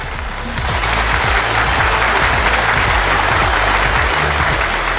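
A crowd on the stage show Jingcai Zhongguo Shuo applauds a speaker steadily for the full five seconds, a dense, even wash of many hands clapping at constant loudness with no voices over it.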